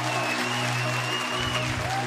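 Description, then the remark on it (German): Audience applause on a recording of a musical composition, dense and steady at an even level through the whole clip, a continuous hiss of many hands clapping, with a faint low hum and thin high tones running underneath. “Mit Publikum.”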